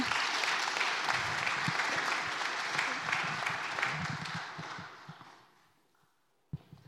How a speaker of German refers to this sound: Nochmal einen Applaus bitte.